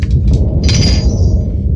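A loud peal of thunder: a deep, continuous rumble with sharp crackling bursts on top, the brightest crack swelling midway and fading slowly. No one speaks.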